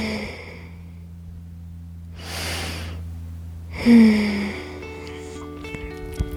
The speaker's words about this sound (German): Okay, lass uns noch mal atmen.